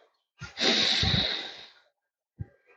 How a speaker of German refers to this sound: Und atmet ruhig ein. Atmet durch die Nase ein